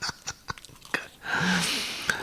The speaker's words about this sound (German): Nee, schmatz nicht so laut, ich muss jetzt was Wichtiges.